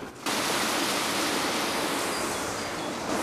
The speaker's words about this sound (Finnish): tuossa kun mennään vähän lähemmäs, niin voidaan ehkä kuulla vähän koskenpauhunaakin. Joo. Sieltä laskee tuosta meidän kotojärvestä tuonne Vihtijokeen päin vettä.